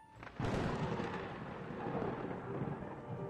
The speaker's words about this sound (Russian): В летописях упоминалось, что в момент появления на свет наследника прогремел гром и сверкала молния.